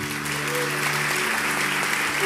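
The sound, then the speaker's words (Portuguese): A round of applause from a crowd for the speaker's parents, who stand up, steady and fairly loud throughout, with a sustained low hum underneath. “uma salva de palmas para meus pais.”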